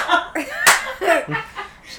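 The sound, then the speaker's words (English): One loud, sharp hand clap, done hard to imitate an old person clapping, lands in the middle, surrounded by people laughing and talking. “Like an old ass person clapping.”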